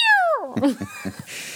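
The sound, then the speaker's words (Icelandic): A voice mimics a cat's yowl: one loud, drawn-out wail sliding downward in pitch, then a few short, choppy vocal bursts that trail off into a soft hiss. “ég veit ekki hvorn brá meira kettinum eða honum”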